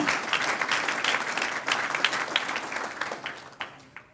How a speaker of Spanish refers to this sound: Vamos a darle un aplauso al Señor. Dele un aplauso al Señor.